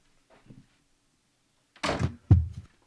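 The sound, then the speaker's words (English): A door is pushed shut: a brief scraping swing followed by a solid, thudding close, with a faint knock just before. No one speaks. “One second, let me shut the door.”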